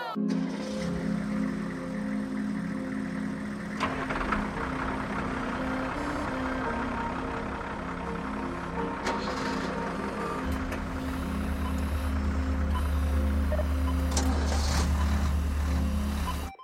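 A car engine idles with a steady low hum, then a clunk as it is put into gear, and the engine note swells into a heavier rumble as the car drives off.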